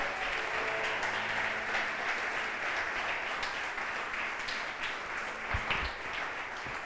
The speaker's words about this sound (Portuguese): Aleluia! Aleluia! Aplauda Ele bem forte, aleluia!